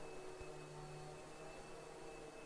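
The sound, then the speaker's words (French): A vacuum cleaner drones steadily in the next room at night, a faint, constant whirring hum with a slight tonal whine and no variation from start to finish. “Un bruit d'aspirateur dans un coin.”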